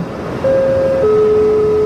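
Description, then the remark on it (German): Dense traffic rumbles steadily and loudly on Rathenauplatz, one of the busiest squares in Nuremberg, Germany, with no talking, while a sustained two-note tone, first higher and then lower, rings out clearly above the noise. “Er gehört zu den verkehrsreichsten Plätzen in unserer Stadt und hat auch eine gleichbenannte U-Bahn-Station.”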